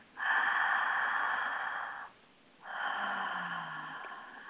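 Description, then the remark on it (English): A slow, deep breath drawn in for about two seconds, a short pause, then a long airy exhale, with no talking, one of several breaths taken in a breathing exercise. “just close your eyes for a minute and take 3 breaths mouth or nose It sounds relaxing just to hear you do it.”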